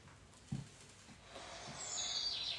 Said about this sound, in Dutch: De vogeltjes fluiten.